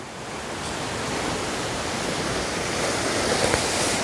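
A steady, full rush of ocean waves washing ashore, a continuous wash with only slight swells in loudness and no voices.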